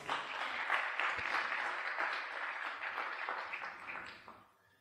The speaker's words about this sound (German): Gebt ihr mal einen Applaus